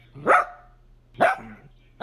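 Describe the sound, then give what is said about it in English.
A dog barks, two sharp barks about a second apart with the start of a third at the end, over a faint low hum and no talking. “Uh, I also learned that, um, let's see, um, my dog likes popcorn at 6.30 in the morning.”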